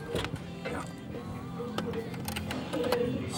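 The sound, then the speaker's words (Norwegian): The dial of a grey rotary telephone is turned and released with the handset lifted, producing a run of mechanical ratcheting clicks and ticks over a few seconds against a faint background hum. “Prøv å løfte opp røret og så slå litt på tallskiven.”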